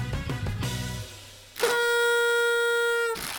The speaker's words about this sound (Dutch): En ik heb natuurlijk dit toetertje niet voor niks bij me.